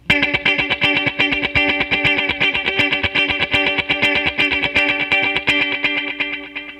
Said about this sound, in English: And then it also has stuff like I've been playing around with, like uh, the Roland Space Echo sound.